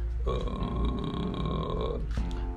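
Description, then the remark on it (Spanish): A single low, gravelly groan from a voice imitating someone who just woke up, made on low notes as a singing exercise, held steadily for nearly two seconds, then a short breathy release. “Em, cuando estamos en notas más graves, por lo general, si hacemos este sonido como recién levantados,”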